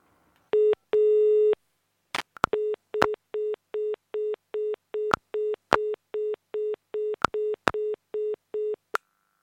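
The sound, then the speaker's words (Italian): A telephone busy signal after a dropped line during a Radio Cooperativa call: steady, evenly spaced beeps repeating about a dozen times, fairly loud and clear, broken by a few sharp line clicks and pops. No one speaks. “Sì, sì, sì, adesso sento, prima era caduta la linea.”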